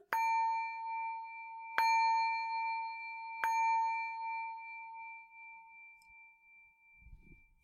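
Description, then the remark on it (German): A singing bowl is struck three times in steady succession, each strike adding to a bright, sustained ringing tone that hums on and slowly fades, with no voices present. “Gut, da braucht man dann natürlich einen Partner, der einem die Schale anschlägt, aber das hätte jetzt äh, auch einen guten Effekt, so direkt neben Ohren sehr hellen Ton.”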